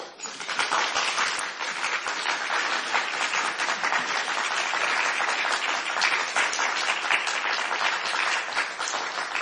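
Sustained applause from an audience after a talk, a dense, steady wash of many hands clapping at even loudness for the full stretch, with no speech over it.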